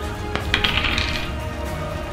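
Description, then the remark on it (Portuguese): Dice clatter across a table for a damage roll in a game, a quick burst of bright clicks and rattles that settles within about a second, followed by a low, steady background hiss. No one speaks. “Pode rolar o dano.”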